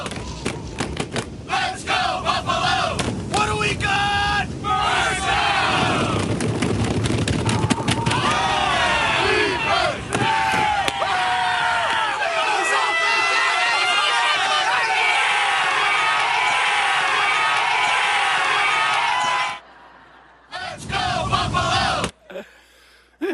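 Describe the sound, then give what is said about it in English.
A dense crowd of Buffalo Bills fans roars and shouts for about twenty seconds, voices overlapping with whoops and yells at a steady high level, before cutting to brief scattered bursts and silence. “And so there's people that go out to cheer them on.”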